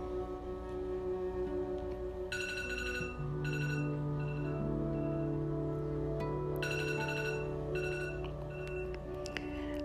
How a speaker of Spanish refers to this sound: Apoyas tu mano sobre el despertador con la intención de apagarlo.